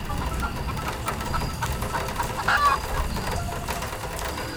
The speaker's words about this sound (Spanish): Sonaba mucho a, a gallos. Mi casa igual a gallos porque pues mi mamá criaba pollos